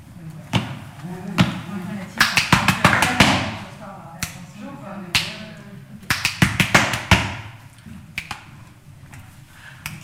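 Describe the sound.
Crisp, dry taps playing a binary pattern with a ternary feel, in steady bursts: a rapid run of even strikes, a pause, then another run, played as a rhythmic pattern with a faint voice underneath.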